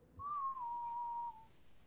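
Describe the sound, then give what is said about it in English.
A single sustained whistled note, steady and clear, holding roughly level pitch for about a second before cutting off, moderately loud with no talking. “Wait, who's whistling?”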